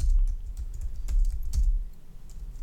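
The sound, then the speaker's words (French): Rapid, irregular clicking of keys on a computer keyboard, fairly loud, as someone notes down the film As Tears Go By in a holiday homework list, with a low rumbling background and no voices. “Je le marque tout de suite dans les devoirs de vacances.”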